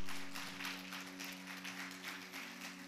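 An audience applauds, a dense, steady wash of many hands clapping that continues for about three seconds at moderate volume, with a faint low hum underneath and no one speaking.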